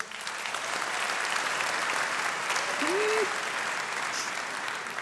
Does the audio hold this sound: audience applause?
yes